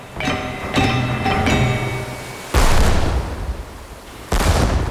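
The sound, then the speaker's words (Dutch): Artillery shells whistle overhead in a few tonal streaks over a bivouac, then two loud, booming explosions land a couple of seconds apart, with no voices; a Dutch naval expeditionary force is shelling the kampong complex of Den Passar. “Suizend vlogen de granaten over het bivak. En een doffe knal in de vechten wees er telkens op dat zij gesprongen waren.”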